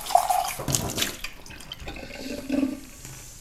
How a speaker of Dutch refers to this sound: Maar die kraan die eh, kon druppelen. En dat vond ik wel heel eng eigenlijk achteraf, want het is heet water wat hier uitkomt.